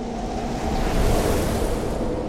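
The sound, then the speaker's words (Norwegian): A violent gust of wind roars through a room in a loud, steady rush, swelling slightly in the middle with a broad, noisy whoosh and no voices. “Et voldsomt vindkast suste gjennom rommet, rev veggene fra hverandre og blåste dem av gårde.”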